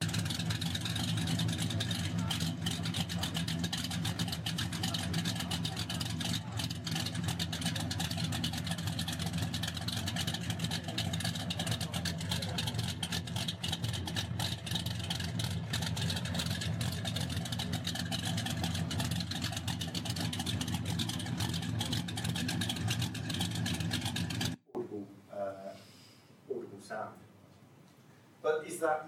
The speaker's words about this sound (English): And at the bottom there, you've got uh, a sound recording from tailpipe of a, a normal car.